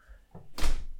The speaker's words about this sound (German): Ich mache jetzt mal die Tür auf.